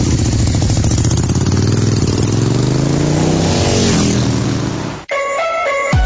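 A loud motorcycle engine revs steadily for about five seconds, its pitch rising and falling with throttle, then cuts abruptly into a short burst of bright electronic tones.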